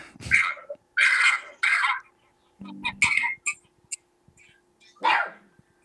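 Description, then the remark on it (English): A dog named Archie barks several times in short, irregular bursts, some coming in quick pairs, fairly loud, with brief quiet gaps between them and no talking. “I only hear Archie barking.”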